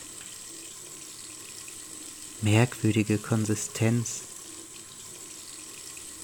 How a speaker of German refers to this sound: Eine rissige, getrocknete Hand drehte sich unter einem kalt rauschenden Wasserstrahl, versuchte sich zu schließen, so weich und fest.